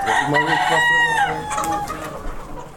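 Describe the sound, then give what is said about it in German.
A dense chorus of about 12,000 young roosters being reared in a farm barn, overlapping crows and clucks rising and falling continuously, loud, with a constant murmur of birds behind. “Dabei kann es durchaus passieren, dass sich die vielen Hähne gegenseitig erdrücken.”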